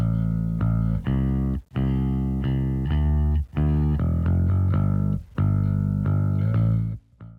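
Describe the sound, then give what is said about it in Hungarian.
A loud, gritty bass guitar plays on its own as the isolated bass track of a song, holding long, droning notes in phrases broken by brief pauses, with no drums, vocals or other instruments. “Ja, most beleturkálok a dalotokba. Most el, először itt a basszus ö, van, amit megtaláltam.”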